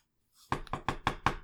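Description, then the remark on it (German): Five quick knuckle raps on window glass in a steady, even rhythm, fairly loud, each knock sharp with a brief ringing tone, with no voices. “Du gehorchst und siehst noch, wie der Regengeist mit den Fingergelenken gegen die Scheibe klopft.”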